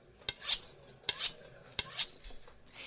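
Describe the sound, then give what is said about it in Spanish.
A knife being sharpened in a kitchen with three quick, evenly spaced scraping strokes, each a bright metallic rasp with a ringing high tone. There is no talking. “Es importante que el cuchillo siempre esté bien afilado. Le daré una pasada.”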